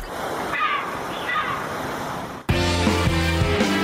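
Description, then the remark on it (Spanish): A steady wash of sea surf rolls and hisses for a couple of seconds, then music abruptly takes over and plays loudly to the end. “Unas birras, terracita, djs burger puesta de sol, el mar.”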